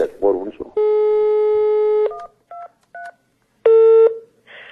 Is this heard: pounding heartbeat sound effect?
no